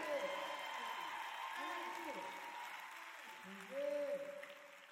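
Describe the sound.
An audience breaks into sustained applause for the worship leader, a dense wash of clapping that swells briefly near the end, with shouts and raised voices cheering over it.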